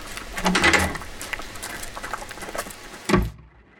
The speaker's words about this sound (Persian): این همه منتظر امروز بودیم چند روز یه قطر بارونم نیومده حالا همین الان وسط کلاس نقاشی باید آسمون بباره خب حالا چیکار کنی؟ خوره هم که نمیشه رفت با این بارون ای بابا